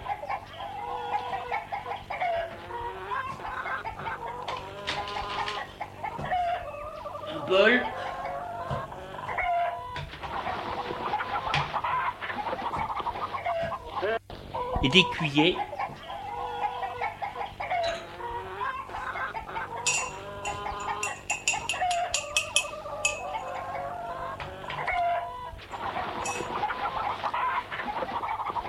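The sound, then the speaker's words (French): A hen on a table clucks steadily as it is shooed off with a wave of the hand, a busy run of short clucks broken by a few sharper squawks, with no voices over it. “Fait sortir d'un geste de la main la poule qui était sur la table.”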